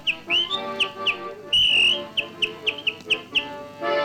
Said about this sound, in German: Das bin ich, der pfeift. Ja, ich.